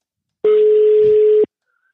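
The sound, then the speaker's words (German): A telephone ringing tone on a call: one steady, loud, mid-pitched beep lasting about a second, sounding alone before cutting off into silence. “Also es klingelt noch nicht. Doch, jetzt Doch, geht's.”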